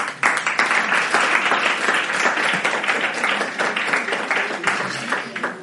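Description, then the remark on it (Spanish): Steady audience applause at the end of a religious talk, a dense wash of many hands clapping at fairly even loudness for several seconds, with a faint voice or two mixed into the crowd noise. “No me merezco ningún aplauso porque lo que digo no es mío, viene de Dios y entonces lo único que tenemos que hacer es agradecernos.”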